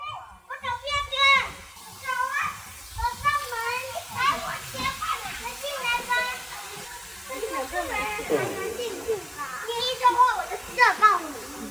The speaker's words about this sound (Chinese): 对，就是动物园里面有非常非常非常多的小朋友，到处都是小朋友的声音。